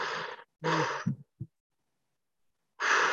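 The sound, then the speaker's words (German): A person imitates the deep breathing horses make when they lay their nose on a person's heart, solar plexus or shoulder: two long, airy breaths, a couple of short low puffs, a pause, then another heavy breath, fairly loud. “Und dann fangen die an, so tief zu atmen, so.”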